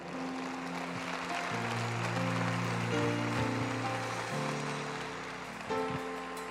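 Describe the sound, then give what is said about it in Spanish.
A church audience applauds the Lord in a steady, dense wash of clapping that fills the whole stretch, with sustained keyboard or organ chords shifting underneath. “Dale un fuerte aplauso al Señor.”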